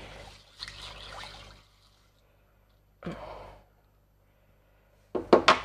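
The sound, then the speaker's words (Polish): Water is poured over tea leaves for a second rinse, in three short bursts of splashing and trickling separated by brief pauses, the last one louder, with no one speaking. “Drugie pukanie.”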